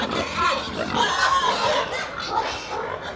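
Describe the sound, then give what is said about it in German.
A crowd of agitated pigs grunts and squeals nonstop, fairly loud, with overlapping high shrill cries rising above a dense, rough chorus of snorts. “Sehen ja aus, als hätten wir Futter. Was Ich glaube, wir gehen besser wieder weg.”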